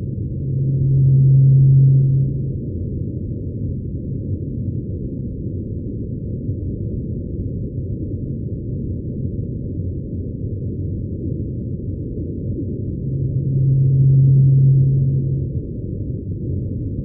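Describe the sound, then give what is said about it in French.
A low, steady rorqual whale call sounds twice, about twelve seconds apart. Each call is a sustained deep tone lasting a second or two over a constant murky underwater hiss. “Donc on pense que c'est un rorqual”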